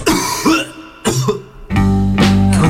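coughing

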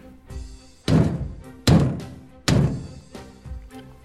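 knocking on a door

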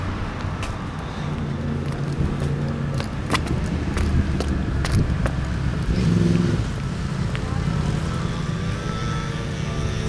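road traffic

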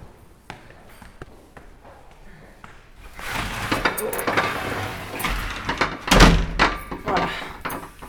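door being closed shut

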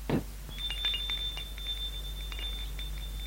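doorbell ringing

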